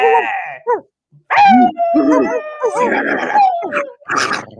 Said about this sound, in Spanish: se disgusta si los oye al ladrar